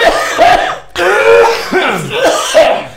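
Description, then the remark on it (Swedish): Several loud bursts of coughing and throat clearing from more than one person, overlapping in quick succession with rough, raspy tones and a brief pause between clusters. “Alla hostat ut.”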